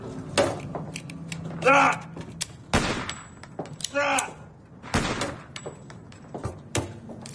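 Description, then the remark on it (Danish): Several sharp, dry cracks from a small-calibre rifle fired at a rat ring out a couple of seconds apart, with brief creaking mechanical sounds and faint voice noises between shots. “Så har jeg så lidt salonriffel, så kan jeg lige få gjort kul på det.”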